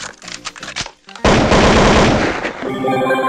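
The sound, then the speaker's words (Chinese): A gunfire sound effect: a few separate shots, a brief pause, then a sudden loud, sustained burst of rapid automatic fire that fades into a tonal ring. “这个劫匪一愣，然后默默的掏出了枪。”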